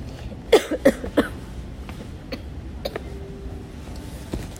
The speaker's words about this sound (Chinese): 哦，妈妈咳嗽。